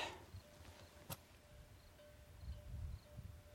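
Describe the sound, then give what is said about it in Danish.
Faint, high chirps from an insect in the grass repeat every half second or so, outdoors high up, over a quiet background with a soft low rumble and a brief rustle. “Et eller andet form for insekt i græsset.”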